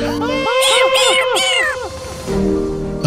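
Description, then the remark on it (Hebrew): A cat sitting on a running iRobot meows repeatedly in a quick series of rising-and-falling cries, loud, with a steady hum beneath; the calls stop and a murmur of background noise follows. “מה זה, חתול שיושב על איי רובוט פועל?”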